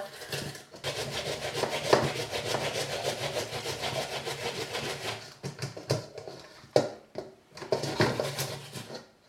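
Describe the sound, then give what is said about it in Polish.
Steady rhythmic rasping of an onion being rubbed against a grater, with repeated scraping strokes that pause briefly and resume in uneven bursts. “trąc cebulę należy zwrócić uwagę, żeby te takie zdrewniałe części na końcach nie zostały potarte.”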